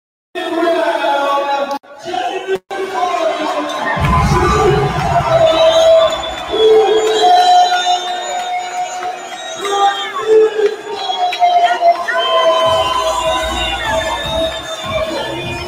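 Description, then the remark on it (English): A loud crowd cheers and whoops continuously, with shouting voices and babble blending into a sustained roar that swells and stays strong for the whole stretch. “And the crowd literally goes, wow, this has been an amazing night.”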